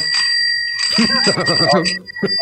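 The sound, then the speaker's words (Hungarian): A small bell on a holder for six shot glasses, received as a Christmas gift, rings with a bright, sustained metallic shimmer that carries through the whole moment, while a person talks over it. “ez egy ilyen kő, kőműves fángli, Aha, amiben van hatfeles pohár, és van rajta kis csengő.”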